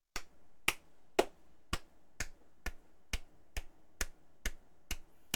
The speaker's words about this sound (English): If you can't tell, I'm clapping. I tell. I, I see you clapping.